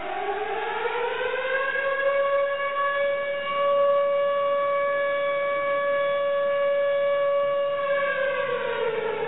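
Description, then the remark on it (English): A loud alarm siren wails steadily, its tone sweeping up at the start, holding a sustained pitch, then sliding back down near the end. No voices are heard. “And you know that when it's listed, and somebody says the big stuff is on the way, they have to sound the alarm.”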